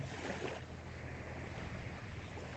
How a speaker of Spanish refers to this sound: las olas que llegan hasta la orilla, ese sonido tan sanador, ese sonido tan tranquilizador.